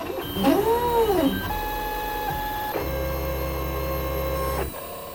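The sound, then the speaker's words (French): A 3D printer printing a Harry Potter-themed castle: its stepper motors whine in rising and falling sweeps, then settle into steady, buzzing tonal hums that shift pitch in distinct sections, with no voices. “Et donc, du coup, là, le projet est terminé et le château est imprimé.”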